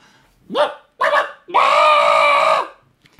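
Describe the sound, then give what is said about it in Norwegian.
A human voice imitates a rooster crowing: two short rising yelps followed by a long, loud, sustained harmonic call lasting about a second, then silence. “Altså, en, altså, hvis jeg skal prøve å være hane her, så sier nå den mer sånn”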